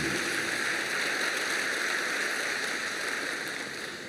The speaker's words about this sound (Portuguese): Pode aplaudir o Senhor.